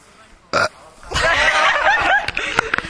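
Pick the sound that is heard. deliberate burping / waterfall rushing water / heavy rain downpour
deliberate burping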